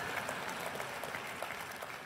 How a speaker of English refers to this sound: Yeah, slow clap from the top. I appreciate it.